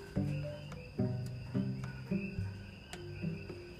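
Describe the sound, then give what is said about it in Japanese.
Coqui frogs call in a lively chorus just after heavy rain, sharp repeated chirps overlapping at a quick, irregular pace, with a steady high insect-like hum beneath; no one speaks. “このコキフロックの音ですよこれ聞こえますか”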